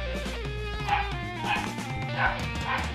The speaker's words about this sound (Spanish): no, no, sé si escucharon esos ladridos, pero. Alguien quiere jugar.